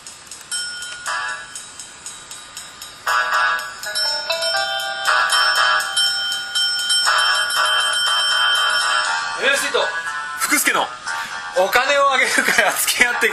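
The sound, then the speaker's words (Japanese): A bright, chime-like opening theme tune with sustained electronic melody notes that step through a steady phrase, getting fuller after a few seconds, with voices joining over it toward the end. “さあというわけで、えっと、どうでもいいことを喋ってる間にオープニングテーマの準備ができたようなので、えー、皆さん、えー、心して聞いてください”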